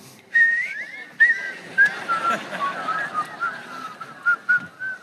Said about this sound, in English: Whistle.